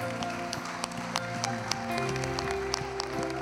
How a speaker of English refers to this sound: And I give you praise for it in Jesus' name. Can you give me a hand clap of praise in here today?